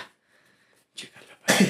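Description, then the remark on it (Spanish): A single loud sneeze: a short, breathy intake builds up, then one sharp explosive burst ends the moment. No talking is heard. “Salud.”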